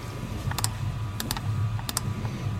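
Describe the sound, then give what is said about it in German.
Quick bursts of computer keyboard typing and clicking come in short paired clusters, sharp, over a low steady background hum with no voices. “Was klickst du schon wieder so wild rum?”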